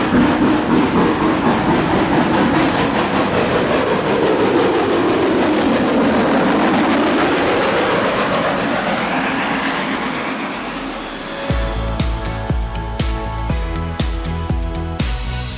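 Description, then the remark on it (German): A narrow-gauge steam train pulls away from platform 1 at Heiligendamm station under a blue sky, with loud, steady chuffing and rushing steam that shifts in pitch as it moves off, then fades into a rhythmic musical passage. “Aber den Molly, Alex, den müssen wir noch mal abfahren hören.”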